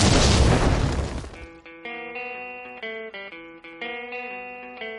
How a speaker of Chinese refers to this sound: 下面马上进入到今天的生活大爆炸环节， 瞬间爆炸。